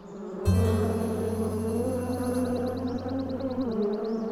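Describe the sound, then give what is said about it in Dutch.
Bees buzz in a steady, loud drone that starts abruptly and holds for several seconds, with a rapid series of faint high chirps ticking along above it near the end. “Draak, stop met neurien. Ik kan mij niet concentreren op mijn training.”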